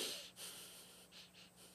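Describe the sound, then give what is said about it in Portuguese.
Someone imitates a father's wheezy, whistling breaths as he sang with his breathing while resting, in a quick rhythmic pattern, several airy pulses rising and falling almost like a hummed tune, with no talking. “ele cantando na respiração dele”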